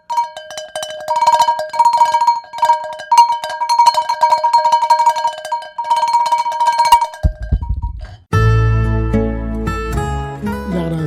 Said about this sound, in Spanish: Pues gracias a ti, Jorge, por poder despertar a más de uno que esté durmiendo a estas horas de la noche con estos cencerros que traigo desde Orozco.